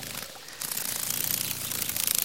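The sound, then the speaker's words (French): A dragonfly's wings buzz at the edge of a pond in a steady, rapid whirring flutter that starts abruptly after a brief quiet moment and holds fairly loud to the end, with no voices. “Cette bestiole fait un bruit très léger qui ressemble à un vrombissement. J'ai trouvé C'est la libellule.”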